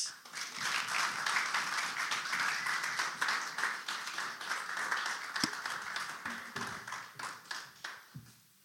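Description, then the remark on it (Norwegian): A crowd applauds the first preacher as she comes out, with dense, steady clapping that holds at full strength for several seconds before thinning into scattered claps and fading out near the end. “Så vi gir henne en stor applaus.”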